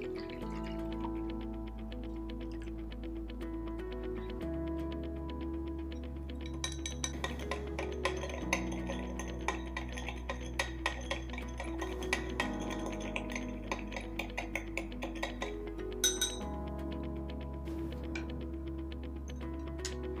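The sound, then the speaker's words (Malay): Light, glassy clinks tap out irregularly as a spatula stirs copper(II) sulfate with water in a glass beaker, dissolving it, heard over steady background music with slowly shifting low notes; no one speaks. “Okey, jadi sekarang cikgu akan masukkan satu spatula kumpulan dua sulfat ke dalam bika dan kemudian masukkan air.”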